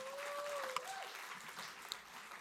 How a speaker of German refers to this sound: Ihr dürft gerne Platz nehmen. Lass uns Band einen Applaus geben. Merci vielmals, Band.